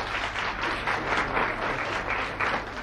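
A studio audience breaks into steady welcoming applause for a journalist, a dense wash of many hands clapping at an even level for a few seconds, with no voices heard over it.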